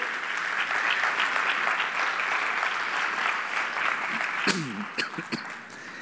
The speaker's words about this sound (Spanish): Un aplauso a todos los que están aquí presentes en la mañana de hoy.